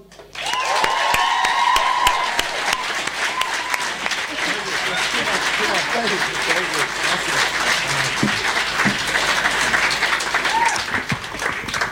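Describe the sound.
Sustained audience applause at a slam poetry event welcoming a slam poet, a dense, steady wash of many hands clapping at a loud, even level, with a few cheers and voices rising through it.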